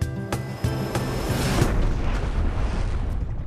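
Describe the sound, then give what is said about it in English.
A loud crash-like explosion of a UFO crashing in a backyard, taking out azaleas and destroying a bird bath: a sharp burst followed by a sustained, roaring rumble of debris and noise that stays dense and loud for several seconds, with no voices. “A UFO has crashed in my backyard, has taken out my azaleas, and destroyed my bird bath.”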